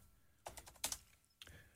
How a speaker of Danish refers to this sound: Og det, der er meget sjovt, hvis jeg går ind og, og skriver min egen mailadresse, nu bruger jeg flere forskellige mailadresser, men hvis jeg går ind og skriver min egen, øh, sådan der,